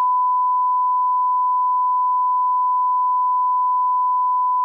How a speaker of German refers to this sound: Also, sag, sag den Namen und ich piepse es raus.